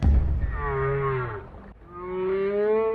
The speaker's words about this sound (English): What is this? There's whale sounds. I thought it'd be soothing.